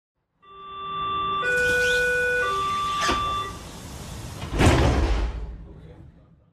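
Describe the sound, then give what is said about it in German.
An S-Bahn commuter train's departure chime sounds as steady, stepped electronic tones over a hissy platform background, followed by the thud of doors closing and rumbling train noise. “Das ist der S-Bahn-Ton, wenn es sozusagen losgeht.”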